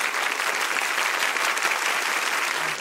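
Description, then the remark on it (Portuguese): Sustained, dense applause from a large UFC arena crowd as Amanda Nunes is declared winner by TKO and undisputed UFC bantamweight champion, a steady roar of many hands clapping at an even loudness with no clear individual claps standing out and no voices on top. “Todos os aplausos para Amanda Nunes.”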